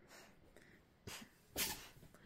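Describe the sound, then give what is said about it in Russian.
A dog named Gisa sneezes twice, a short snorting burst followed a moment later by a sharper, louder sneeze, with quiet background otherwise and no talking. “Это у меня Гиса тут чихнула.”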